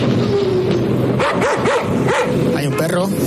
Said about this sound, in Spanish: un perro Sí. Yo creo este era un anuncio de televisión.